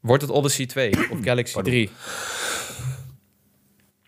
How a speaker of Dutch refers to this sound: moet even hoesten, dat kan allemaal mensen.